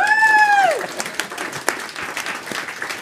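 An audience breaks into steady, dense applause lasting several seconds for a colleague who created the organisation's brand using AI, opening with a high sustained whistle or whoop that glides downward before the clapping carries on alone.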